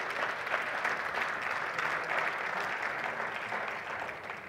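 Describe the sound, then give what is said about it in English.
A round of applause from a church audience for a visiting district superintendent and his wife: many hands clapping in a dense, steady wash that holds at an even level for several seconds before easing slightly at the end, with no talking. “Can we please give them a, a round of applause?”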